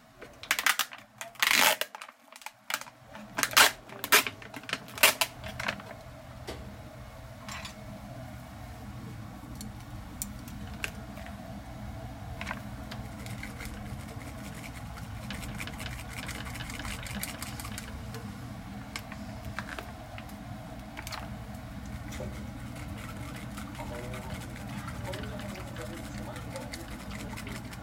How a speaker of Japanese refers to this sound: 1月7日日曜日お昼12時我が家の台所の音ですこの日妻が仕事のため子供にお昼ご飯を作って食べた後夜ご飯何作ろうか考えこの後は子供たちと公園に遊びに行く予定だったのでとりあえずお味噌汁だけ先に作っておこうと具材を煮込み最後の味噌を研いでる味噌を研いでいる音です